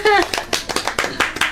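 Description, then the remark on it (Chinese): Brief applause for two members of a band: a quick run of sharp, fairly loud claps in a steady, brisk rhythm, opening with a short voiced cry before the clapping takes over. “很厉害，来掌声一下。”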